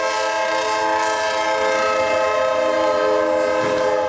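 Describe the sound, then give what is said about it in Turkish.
A loud, sustained train horn blares continuously with steady harmonic tones over the rumble of a train on the Eskişehir-Konya service speeding into a level crossing, with no voices. “Eskişehir-Konya seferini yapan trende hızla girdi hemzemin geçidi.”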